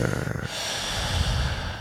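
Deep, panting breaths repeat, one heavy exhale flowing into the next with a steady, breathy rhythm and no talking, as a person hyperventilates with long, intense, deep breaths.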